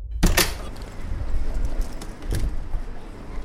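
A front door opens with a sharp clunk and shuts again about two seconds later with a second solid thud, over a low, steady background rumble.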